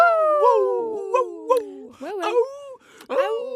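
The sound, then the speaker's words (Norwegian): People in the Radio Nova studio imitate howling puppies and wolves, long gliding wails and yelps overlapping one another, loud, sliding down in pitch with bursts of whimpering in between. “Masse små hundevalper og ulver i studio her. Nei, bare tulla!”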